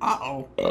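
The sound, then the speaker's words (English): A person imitates a spider creature's burp with a short, throaty two-part vocal grunt, moderately loud, lasting under a second. “that's what it sounds like. Yeah, it burps.”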